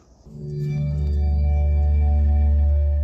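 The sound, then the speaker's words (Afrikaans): A car's welcome chime as you get into the vehicle: a smooth electronic tone that swells in quickly and then holds as a full, steady, resonant hum with bright overtones, fairly loud, with no voices. It can be switched off on the central screen. “Dis die geluid wat jy hoor met die inklimslag.”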